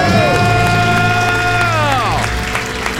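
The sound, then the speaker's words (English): Loud celebratory debt-free scream and cheering from a small group on The Ramsey Show after paying off 224,000 in debt in 48 months, sustained high-pitched yells with a gliding shout near the end, energetic throughout. “Let's hear a debt-free scream.”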